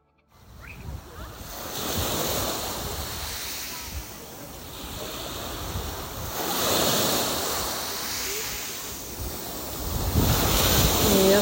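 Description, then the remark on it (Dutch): Waves break and wash repeatedly onto Satuna, a small beach on the Costa Brava, surging in broad swells every few seconds, with steady wind rumbling across the microphone and no voices. “Ik had eh, gisteren een hele mooie podcast voor je opgenomen. en strand.”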